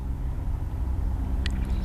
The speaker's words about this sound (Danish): Det var en solsort. Der var en solsort.